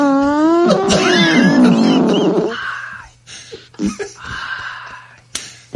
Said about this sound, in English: Would you like me to play another fart sound? Yes.